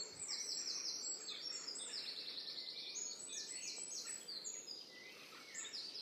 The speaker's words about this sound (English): It's really loud here. That's obviously a great tip. Uh, I can hear wrens, I can hear robins, can see and hear blackbirds.